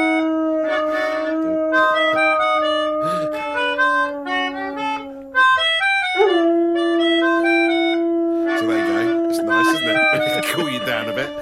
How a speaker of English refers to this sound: Uh, he is playing uh, his little keyboard with a melodica that he blows into, and the dog sings slash howls along.